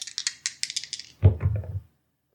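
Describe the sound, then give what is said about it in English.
Two dice rattle in a cupped hand with quick bright clicks, then tumble onto a table in a brief flurry of knocks before settling into silence. No one speaks. “Roll me okay. the number of dice associated with your style. How many dice is that? That's two.”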